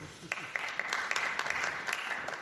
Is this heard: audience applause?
yes